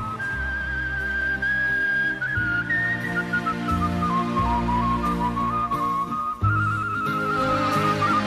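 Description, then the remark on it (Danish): A man whistles a flowing melody through his lips, clear and steady, gliding between long held notes over a sustained musical backing with no talking. “Du kunne godt bilde mig ind, at det var en eller anden form for instrument, han øh, fløjtede på, men det er simpelthen bare mundtøjet.”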